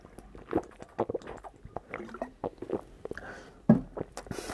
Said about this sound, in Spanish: Disculpe, voy a dar un trago de agua.